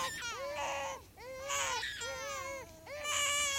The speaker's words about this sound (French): Et donc toute la nuit, c'est le bal euh, des entrées et des sorties de chambre avec des bébés euh, qui pleurent.